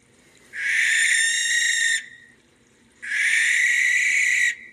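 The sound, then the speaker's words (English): An owl gives two long, rasping screeches at night, each lasting over a second, separated by a brief pause. The calls are loud against a quiet background, with no talking. “This distinctive, you might say unsettling call is often heard on dark winter evenings and late into the night.”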